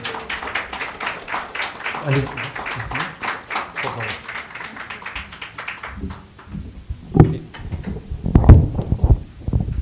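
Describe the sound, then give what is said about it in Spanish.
A chair scrapes and clunks as it is dragged across the floor, with heavier thumps and knocks near the end and some background voices murmuring. “Déjame que pasemos una silla para acá.”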